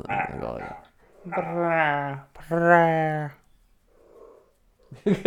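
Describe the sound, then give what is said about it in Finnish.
A wiener dog, during washing time with a Bengal cat, gives two drawn-out, low grumbling moans in quick succession, fairly loud, with brief scuffling noises before and after. “En mä taju tuota kurnotusta.”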